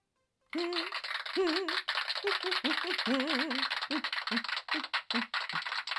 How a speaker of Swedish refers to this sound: Underbart med applåder. Visst är det? Nej, visst blir, visst blir man glad? både av applåder och av din sköna sång.